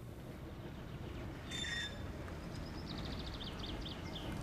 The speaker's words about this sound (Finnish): Raitiovaunu kolisee Laajalahden tiellä kirkon ohi.